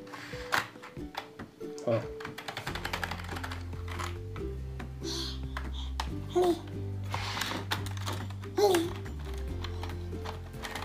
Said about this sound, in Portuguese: Como é que digita aí no teclado?